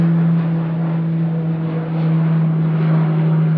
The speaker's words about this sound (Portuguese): Caramba, é um avião da Força Aérea.